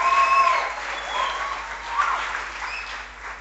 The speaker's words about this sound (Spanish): Entonces, ¿por qué no damos un aplauso a vuestros padres, a vuestras madres espirituales?